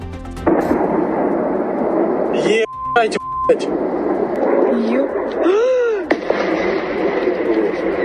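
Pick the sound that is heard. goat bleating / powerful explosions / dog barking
powerful explosions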